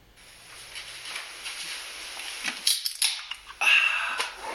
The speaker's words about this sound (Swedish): Ja, och eh, för er som kanske inte vet så, men eh, man hör ganska tydligt att en, eh, en öl, en cider, en enhet öppnas och så.